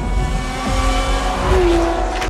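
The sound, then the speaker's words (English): Powerful race car engines roar and rev loudly and continuously on a track, with a rising whine and a brief tire squeal, intense throughout; from a movie with Orlando Bloom out August 11th. “David and co-star Orlando Bloom will get hearts racing in their movie out August 11th, and both hit the track. Those cars are insanely powerful”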